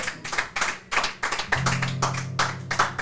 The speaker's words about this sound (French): On peut encore l'applaudir.